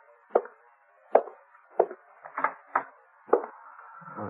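An axe splits a pile of kindling near a barn with about six sharp, woody chops at an uneven pace, clear, over a faint steady background hum. No one speaks.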